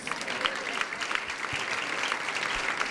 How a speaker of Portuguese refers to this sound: Meu aplauso para vocês.